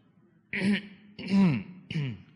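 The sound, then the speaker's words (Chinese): Three short, deliberate throat-clearing coughs, each voiced like an "ahem" of warning, demonstrating a stern father's warning cough to make misbehaving children settle down, evenly spaced over about two seconds and moderately loud, with no talking around them. “啊，我们顽皮了，放肆了，啊，这个爸爸马上看我们一下，就收敛了，啊，或者呢咳嗽一下。”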